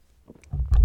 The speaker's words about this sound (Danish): Jeg er slet ikke færdig med, øh, med, øh, med min øh, øl her, men jeg har alligevel ævlet i, i godt 20 minutter. Så, så jeg vil tage en slurk, og så vil jeg til at, at runde af.